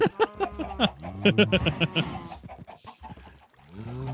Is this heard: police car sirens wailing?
no